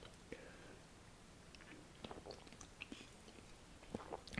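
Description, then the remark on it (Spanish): Someone takes a quiet sip of a drink: soft wet mouth clicks and small swallowing noises scattered over a few seconds, with no talking. “A ver, voy a pegar otro trago de esto.”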